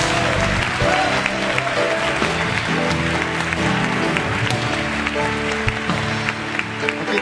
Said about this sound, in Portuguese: Pode aplaudir Jesus.